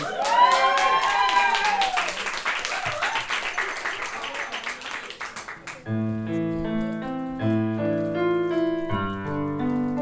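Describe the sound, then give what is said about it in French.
A crowd applauds loudly with dense clapping and a few cheering voices for about six seconds, then the sound cuts abruptly to steady melodic music. “Donc on peut applaudir”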